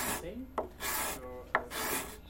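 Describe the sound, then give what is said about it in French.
A hand scraper shaves wood, raising small shavings, in three dry, rasping strokes, each about half a second long, with a brief pause and a sharp little tap between strokes. No one speaks. “Ouais, là, ça y est, tu commences, là, tu vois, tu as, des petits copeaux qui arrivent.”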